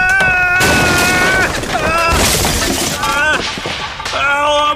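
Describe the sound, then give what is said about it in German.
A loud clattering crash as someone stumbles backward into a shelf of pots and pans and they tumble off it: several metallic bangs in quick succession with bright ringing tones that linger and shimmer between the impacts. “Oh Mann, du bist rückwärts in das Regal mit den Töpfen und Pfannen gestolpert.”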